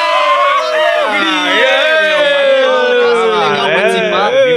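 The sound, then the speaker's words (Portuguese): A group of people shout together in one loud, sustained burst of overlapping voices, with pitches rising and wavering throughout the roughly four-second cheer. “Aí, galera, como o clima do programa ficou muito pesado, eu vou pedir para todo mundo dar um grito aqui pra gente terminar pra cima, né?”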